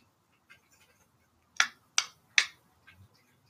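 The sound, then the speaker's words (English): Cats eating wet food, heard as a short, irregular run of sharp, wet smacking clicks, three louder ones in quick succession among fainter ticks, with no talking. “I wonder if you guys can hear the cats eating their wet food.”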